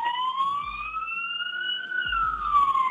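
A fire truck siren wails loudly in a long rising and falling sweep as the fire truck drives the wrong way against traffic on a jammed road near Bogotá, Colombia, in the early morning, dominating, with low traffic rumble underneath and no talking.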